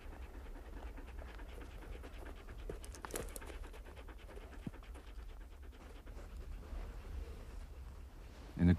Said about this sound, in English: one of the dogs jumps up, growling, or they just lie there, whining with longing for their master.